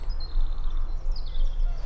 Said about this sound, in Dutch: Ehm, we horen de dieren wakker worden. De vogels. Een paar honden. Een specht. En een haan die er naar kraait.